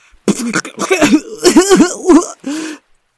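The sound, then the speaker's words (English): A voice sputters and coughs in a rapid string of wet, gagging bursts, fairly loud, as a dog paddling in the ocean coughs up seawater, ending with one longer strained cough. “he was already coughing up seawater, and more seemed to get in there every time.”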